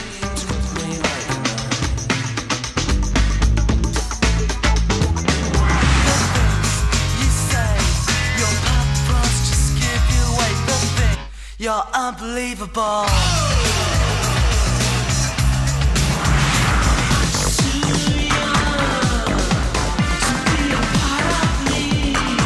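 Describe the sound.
A loud, continuous medley of Manchester-sound rock and dance music excerpts, driving beats and dense guitars, briefly dropping out into a sparse break midway before the full band returns, with sung vocals.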